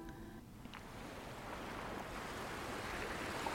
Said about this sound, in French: Tu t'approches de l'eau tes orteils touchent les petites vagues qui se brisent doucement sur la plage.